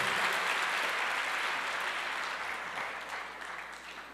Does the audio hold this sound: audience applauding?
yes